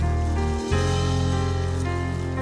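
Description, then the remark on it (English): An audience claps hands in praise to God during worship, a dense, steady patter of many hands at even loudness, over sustained keyboard or organ chords, with no voices. “If you feel His presence today, give Him a hand clap of praise.”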